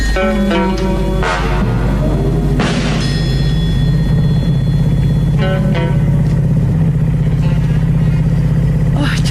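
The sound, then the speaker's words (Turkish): A car engine drones steadily and loudly throughout, a low constant rumble from inside or near the moving vehicle, with a few sharp clattering bursts and faint voices beneath. “çok iyi araba kullanıyorsun”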